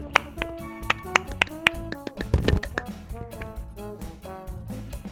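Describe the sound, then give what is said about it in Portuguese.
A handful of sharp, scattered handclaps, like a small round of applause from just a few people, uneven in rhythm, with some tonal sound and faint voices in the background. “Até até uma salva de palmas”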